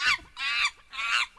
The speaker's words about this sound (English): No, that's not that's not an advertisement break. That's also the sound of a monkey. I don't want I don't want a monkey sound effect.